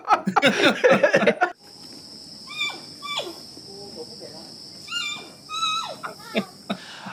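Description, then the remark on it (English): A giant panda gives a series of short, high, bleating chirps that slide downward, spaced a second or so apart, over a steady high insect-like hum, after a brief loud, rough burst at the start. “we should have a cutaway to what a panda sounds like.”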